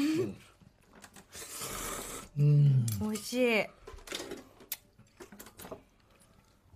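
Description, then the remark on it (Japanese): A noisy burst of someone slurping ramen noodles in the morning, followed by a short spoken reaction and faint clinks of dishes and utensils. “じゃあしばらくすする音だけ聞いていただいて”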